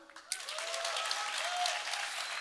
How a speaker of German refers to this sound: Okay, wir testen es mal. Wer ist meiner Meinung? Kleiner Applaus.